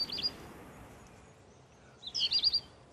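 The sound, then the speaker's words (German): A black redstart sings in Cologne in the dark, over an hour before sunrise, in two short bursts, a brief high note at the start and then a quick scratchy, warbling phrase, clear against a quiet, hushed background with no voices. “Es ist ein Hausrotschwanz. Er beginnt schon über eine Stunde bevor die Sonne aufgeht mit seinem Gesang.”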